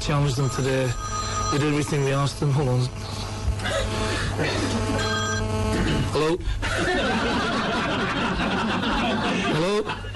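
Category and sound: signal or alarm, mobile phone ringing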